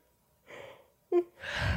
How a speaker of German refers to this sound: Musst du kurz gähnen.